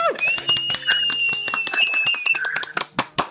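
Applause of dense, irregular claps with a steady high whistle-like tone running through most of it, thinning out into a few louder, separate claps at the end.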